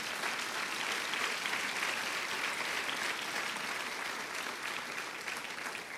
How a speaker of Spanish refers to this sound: Alguien denle un aplauso al Señor, por favor, una vez más.